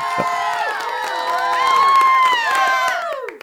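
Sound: studio audience cheering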